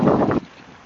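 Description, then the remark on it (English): A short run of crunching footsteps on snow on the lakefront by Belmont Harbor in Chicago, Illinois, three quick, fairly loud gritty crunches that stop abruptly, leaving a soft windy hiss. “I don't know if you heard that, but I'm stepping on snow as I walk and leave this audio.”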